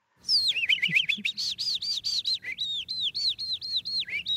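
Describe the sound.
An animal-voice imitator whistling a convincing mouth imitation of skylark song: a rapid, unbroken stream of high, bright chirps and warbling trills, fairly loud, lasting about four seconds with no talking.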